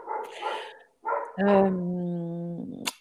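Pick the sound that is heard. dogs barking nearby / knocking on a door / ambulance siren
dogs barking nearby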